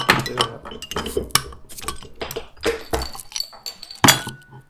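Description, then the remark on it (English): Glass beer bottles clink and knock together repeatedly in an irregular clatter, fairly loud, as a bottle is opened and thrown around a room to make as much noise as possible, with a few bright ringing taps standing out and no voices. “I literally just um, get my bottle open and throw it around the room.”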